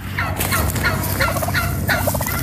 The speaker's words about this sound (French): Ah, oui, ah oui, ça fait ce bruit là. Le dindon gascon ou le dindon landais. Il en reste moins d'une trentaine, figurez-vous, dans les Landes et en Sud-Gironde aussi, à Lugos et à Guillos.